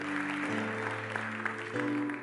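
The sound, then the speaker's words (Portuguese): A church audience applauds the Lord in a steady, dense wash of clapping, blended with sustained keyboard or organ chords that shift pitch partway through. “Aplauda o Senhor nessa hora, porque o Senhor está buscando uma igreja para o avivamento.”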